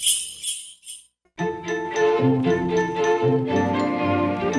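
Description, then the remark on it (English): A brief shimmer of jingling bells, a short pause, then a bright, full musical arrangement of the Christmas tune Jingle Bells with bells ringing over it, steady and fairly loud. “Dasher, listen to that. Isn't that, isn't that Jingle Bells?”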